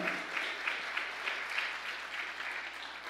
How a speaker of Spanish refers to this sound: ¿Cuánto le pueden dar un aplauso fuerte al Señor?